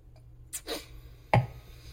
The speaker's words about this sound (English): Give me a second. Let me take a sip.